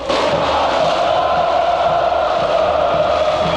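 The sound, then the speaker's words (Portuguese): A huge crowd of more than 50,000 football fans in Goiânia, Brazil, wearing Brazil's colours and welcoming the Brazilian national team, roars and cheers in a steady, dense wall of noise, loud and unbroken throughout, with many voices blending into a sustained din and no distinct speech. “O show começa com a torcida.”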